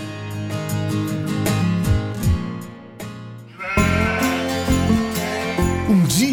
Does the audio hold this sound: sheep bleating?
yes